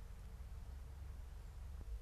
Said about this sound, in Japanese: 今こうやって静かにすると、はい、何の音聞こえましたまず川の流れる音と、うん、あと鳥の鳴き声とか